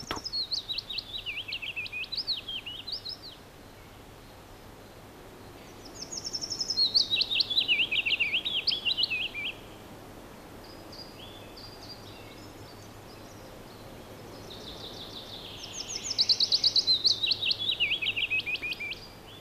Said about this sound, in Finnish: toinen laulaja, pajulintu, on hyvin lähelle samanlainen, mutta se on huomattavasti melankolisempi, apaattinen ehkä, surumielinen ja loppua kohden sillä lailla laskeva